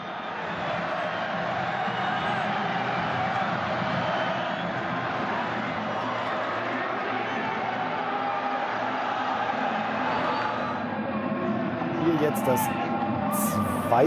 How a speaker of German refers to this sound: Und wir drehen einfach mal den Ton hoch, damit Sie jedes Mal den Jubel genießen können.